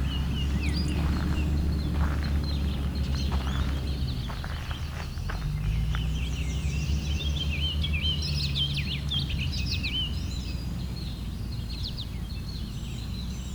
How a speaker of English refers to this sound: It is picking up the goldfinch that's here though.